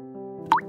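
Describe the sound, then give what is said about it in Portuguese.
A single tear drop from Patinho, a duckling, plops into a lagoon with a short, bright rising bloop, clear, over a soft, steady background of sustained musical tones. “Ela estava assim mesmo, até que percebeu que as suas lágrimas não eram as únicas que caíam na lagoa.”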